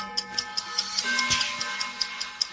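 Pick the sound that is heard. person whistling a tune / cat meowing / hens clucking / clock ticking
clock ticking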